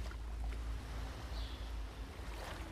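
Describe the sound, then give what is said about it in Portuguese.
A steady, full wash of water noise with a deep rumbling underneath, as ocean waves break continuously on a beach. There is no speech, just the constant roar of waves. “Você vai ouvindo as ondas quebrando.”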